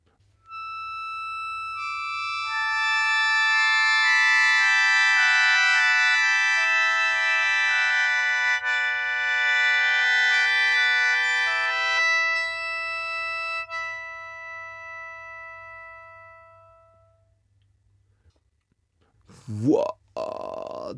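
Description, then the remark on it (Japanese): A sho Japanese mouth organ, its bundled pipes set in a bowl-shaped base decorated with lacquer maki-e showing a phoenix, sustains a shimmering cluster of bright, steady tones for about twelve seconds, the chord shifting slightly before fading away, followed by a brief voice near the end. “確かになんか天から光が降り注いできたような僕初めて生でこのショーの音聞きましたけどいいもんですねとってもこう美しい音色がしますねでこれがヨーロッパに伝わっていって後々アコーディオンやパイプオルガンが生まれるルーツになってるんですよ”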